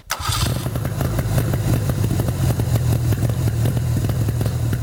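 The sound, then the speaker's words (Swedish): A car engine catches after a brief crank and settles into a loud, steady, fast idle on choke with a throbbing low rumble. No one speaks. “Får nog dra ner intjåken lite tror jag.”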